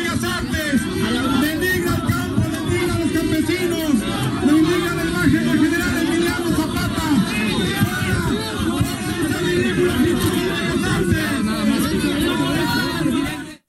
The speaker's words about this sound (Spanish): Vamos a escuchar el primer audio que tuvimos en el resumen de noticias para que vea de repente cómo se armaron los empujones y los gritos que estábamos escuchando.